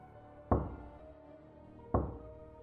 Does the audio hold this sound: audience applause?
no